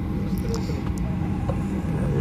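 Steady, loud airplane cabin noise in flight, on a plane from Casablanca's Mohamed V airport to Tunis passing near the Tunisian coast: a constant low rumbling drone with a faint airy hiss on top, holding unchanged for the whole stretch with no talking.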